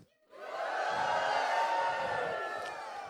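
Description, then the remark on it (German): An audience cheers joyfully together, a sustained roar of many voices that swells quickly after a brief pause and holds loud for a few seconds. “Das war kein Geschrei, das war jetzt Jubel.”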